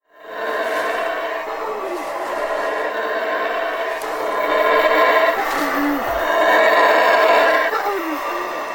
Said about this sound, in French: Pour resituer et te donner une petite idée de l'ambiance sonore qu'ils produisent, voici des cris de singes hurleurs. Tu vas voir, c'est quand même assez spectaculaire.